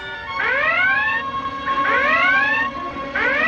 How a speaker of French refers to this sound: Faites taire cette maudite sirène